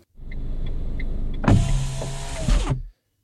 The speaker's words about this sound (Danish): Før vi holder helt ind til siden og ruller vinduet op, så skal vi slutte af med de kære spørgsmål fra jer lytter, og vi starter med et fra